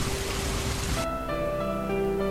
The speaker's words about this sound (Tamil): இப்போது நள்ளிரவாகிறது மெல்லிய தூரலாய் மழை பெய்ய தொடங்கியிருக்கிறது